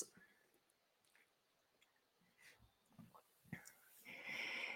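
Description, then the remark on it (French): A small sip of water is taken: quiet mouth clicks and a soft swallow, then a breathy slurp or exhale at the end, with no talking. “Ça mérite une petite gorgée d'eau.”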